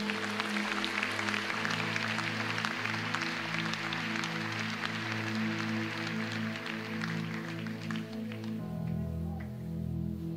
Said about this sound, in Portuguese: Ah, dê um aplauso ao Senhor neste lugar.